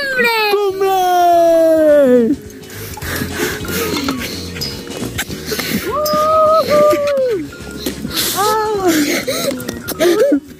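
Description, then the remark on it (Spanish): Children aged 11 and 9 crying with emotion at the summit of a peak over 6,000 metres high, opening with a long, high, falling wail, then broken, wavering sobs and gasping cries that rise and dip in pitch, fairly loud throughout. “Ya en lo más alto, brotan las lágrimas de emoción.”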